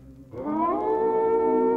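A loud, drawn-out howl at around two in the morning, seeming to come from somewhere nearby, starts after a brief low rumble. Its tone rises slightly, then holds steady and strong, with rich harmonics, until the end. No one speaks.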